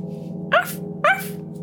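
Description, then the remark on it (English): Two short, sharp dog barks about half a second apart, each with a quick upward yelp, rising loudly over a steady low hum. “Your trunks are oinking, oinking and barking.”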